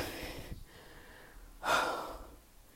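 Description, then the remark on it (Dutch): Heavy, breathless panting after walking down and back up to a second-floor home to collect a parcel, with a strong gasping inhale near the middle and ragged breaths before and after, no speech. “ik heb bewust, neem ik nu al op en wacht ik niet vijf minuten en dat is gewoon dat je even hoort hoe erg het is dat ik buiten adem ben.”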